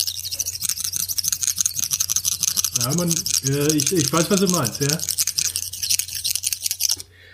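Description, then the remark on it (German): Rapid, scratchy rasping of grooved objects rubbed together runs steadily for about seven seconds, a busy texture meant to mimic bird chirping, with a man speaking briefly over it midway. “Und wenn man die äh, richtig aufeinander reibt, ich hab nur wieder vergessen, was die Technik war, dann klingt das ein bisschen wie ein Vogelzwitschern”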